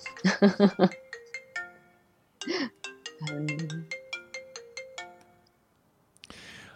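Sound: mobile phone ringtone ringing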